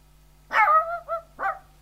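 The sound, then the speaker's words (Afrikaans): A small dog barks three times, a longer high-pitched yap followed by two shorter ones, fairly loud against an otherwise quiet background. “Ons het niks om jou in ruil aan te bied nie, behalwe die klein hondjie.”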